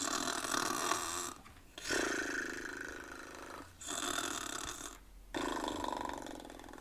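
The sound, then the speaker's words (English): Several long, rasping snores made by a human voice imitating someone asleep, each loud breath followed by a brief pause, in a steady slow rhythm. “So Zebra's worn himself right out trying to get painted in her alphabet. And he's gone to sleep. Can you do some snoring for me?”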